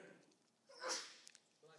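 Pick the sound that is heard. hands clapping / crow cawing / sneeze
sneeze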